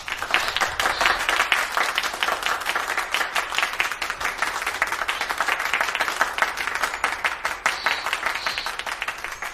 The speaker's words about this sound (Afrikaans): Vanjaar se medalje vir die vinnigste insek gaan na kakkerlak. Almal klap hande. Besie die heel hardste.